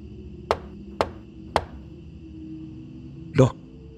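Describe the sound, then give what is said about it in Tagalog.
Three sharp, evenly spaced knocks on a bedroom door in an apartment, then a pause and one heavier, longer thud, over a faint steady hum. “Ang kaso, napalitan naman po yon ng pangangatok sa pintuan ng kwarto namin.”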